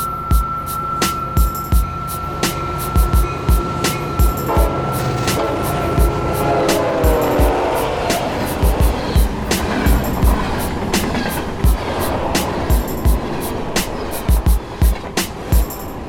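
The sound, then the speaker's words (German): A train without air conditioning rolls along its rails with a steady clatter of sharp clacks over the track joints, an ongoing rumble and a faint whine beneath, heard as if from on board. “Mein Zug hat einen Namen.”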